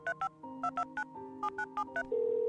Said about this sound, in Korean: 당신은 게임 비밀번호나 전화번호를 보다 빠르게 누르는 것에 빠져 있었고 그때도 어머니의 전화번호를 매우 빠른 속도로 눌렀다.